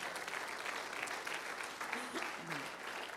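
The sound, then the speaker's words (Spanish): An audience at a sermon applauds the Lord steadily, a dense wash of many hands clapping at even loudness for a few seconds, with a few faint voices calling out beneath it. “El aplauso fuerte al Señor.”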